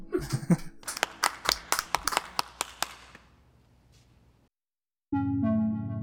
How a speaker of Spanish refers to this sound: Los queremos, un aplauso. Gracias.